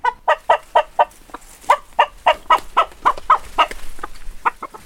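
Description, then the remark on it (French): Chickens of the Coucou de Rennes and black naked-neck breeds cluck in a quick, uneven series of short, clear calls, with a faint farmyard hum behind them and no talking, on a poultry farm at l'Antillère between Châteaubourg and Vitré. “J'ai deux races de poulets, donc les, cou les coucous de Rennes, les nu noirs, après les pintades.”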